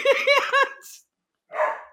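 Dogs bark in a quick run of three sharp, loud barks, followed by a short hiss, a pause, and then one more rough bark.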